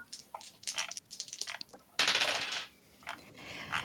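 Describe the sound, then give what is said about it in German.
Dice clatter and tumble across a hard table in a tabletop game, a quick run of sharp little clicks, then a brief louder rattle before they settle with a few final taps, rolling a twelve. Fairly quiet, no voices. “Würfel mal plus Raffinesse, bitte.”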